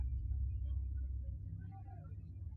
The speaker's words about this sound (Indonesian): Terdengar suara meraung bunyi kasar dari mesin motor bututnya.